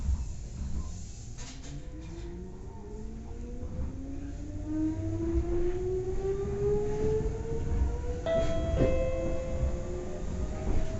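A Nagoya Railroad Toyota Line train in Japan runs on rails after leaving Hiratobashi, with a steady low rumble, a few sharp wheel clacks, and a rising electric motor whine as it picks up speed. No one speaks.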